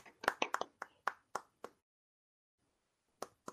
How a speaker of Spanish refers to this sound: Un aplauso. Un aplauso.